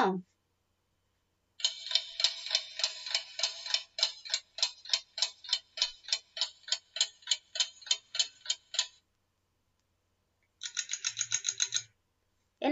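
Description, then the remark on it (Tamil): A clock ticks steadily in a quick, even rhythm for several seconds, pauses, then resumes with a shorter, faster burst of ticks. The sound is fairly crisp, with no talking over it. “சவுண்டுப்பா இது tick tick tick டிக்னு very good என்ன sound மாதிரி இருக்குது கடிகார சவுண்டு மாதிரி இருக்குதா சூப்பர்”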